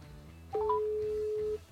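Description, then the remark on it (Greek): Telephone dialing tones as a phone call is placed: a quick run of three short beeps stepping upward, then a steady, clear tone holding for about a second before cutting off, with no talking. “και τώρα που υπάρχει ένας αρεστός ε, εδώ, κάνω το τηλεφώνημά μου.”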